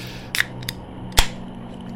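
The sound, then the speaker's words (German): A soft drink container being opened: a few brief, sharp clicks and crackles, the loudest a crisp snap near the end, over a faint low steady hum with no talking. “Ähm, ich öffne eins der nicht näher genannten Erfrischungsgetränke, äh, idealerweise ja Wasser, weiß nicht, ob da eins dabei ist.”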